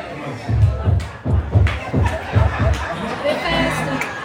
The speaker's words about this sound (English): They were good. Come on, let's give them another hand.